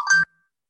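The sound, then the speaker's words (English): A single short electronic notification ding from a phone, bright and tonal with a clean ringing tail that fades quickly, heard alone. “Yeah, sorry, that's my phone.”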